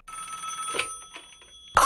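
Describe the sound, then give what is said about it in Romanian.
A telephone rings with a bright, sustained electronic tone and clear overtones. The single ring is steady, then cuts off abruptly as a louder burst of sound takes over. “Alo, cine la telefon?”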